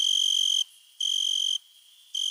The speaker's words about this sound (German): Zum Beispiel das Weinhähnchen. Sein Zirpen, das in warmen Sommernächten in Österreich zu hören ist, wird auch als Gesang bezeichnet. Der Vorgang, wie das Tier die Laute hervorbringt, als Stridulieren.